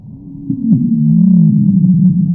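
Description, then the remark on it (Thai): A recorded wheezing lung sound: a continuous, low musical whistle that wavers slightly in pitch, rising after a brief soft start and holding steady over a faint breathy rush until the end. “เอาใหม่ลองฟังขอขออีกรอบขออีกรอบหนึ่งที่เป็นลักษณะแบบเดียวกันนะอืมเผื่ออันนี้ไม่ชัด”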